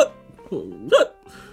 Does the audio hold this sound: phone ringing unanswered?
no